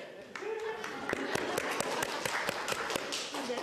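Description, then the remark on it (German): A crowd breaks into a short burst of applause for the three ladies from the Konsum, many hands clapping in a dense, steady patter with a few sharper claps standing out, while some voices murmur underneath. “Die Damen vom Konsum, die drei Damen vom Konsum, kleinen Applaus vorweg.”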